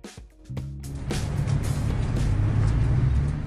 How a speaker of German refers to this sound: Es ist ein Freitagvormittag, 9.30 Uhr in einem Industriegebiet in Karlsruhe. Die Straße ist ziemlich laut. LKWs donnern im Minutentakt vorbei, während vor dem Eingang der Karlsruher Tafel Menschen Schlange stehen.